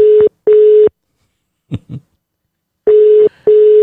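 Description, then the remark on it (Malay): Telephone ringback tone as a call is placed to a person: two loud double-beat rings, each a pair of short steady buzzing tones, separated by a quiet gap holding a brief, faint murmur of a voice. “Kita telefon ini orang.”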